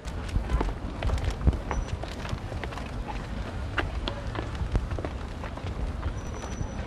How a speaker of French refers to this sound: Maintenant que vous avez euh, pris des forces avec les contenus, on va aller décompter des calories, on va monter les escaliers. Allez, let's go